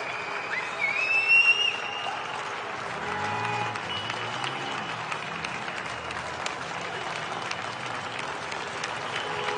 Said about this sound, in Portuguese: A única coisa que tem assim de interação que eu acho bem bacana aqui na, aqui na Espanha é que todo dia às oito da noite todo mundo sai na janela e aplaude é, o pessoal médico.